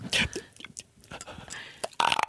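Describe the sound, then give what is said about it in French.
A loud, throaty burp bursts out, followed by some quieter rustling and another rough, resonant belch near the end. “Ça m'écœure plus que le rot.”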